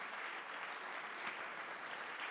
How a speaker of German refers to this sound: Ich möchte noch mal in die Kamera schauen und mal ein dickes, fettes Hallo sagen nach Erlangen. Komm, lass uns dem mal richtig, richtig laut Hallo sagen. Hier aus Nürnberg.